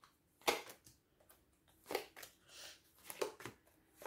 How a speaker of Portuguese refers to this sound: Portanto, vamos então aqui lançar as cartas.